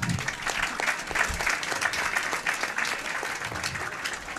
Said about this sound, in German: Vielen Dank. Applaus für Frank Elsner.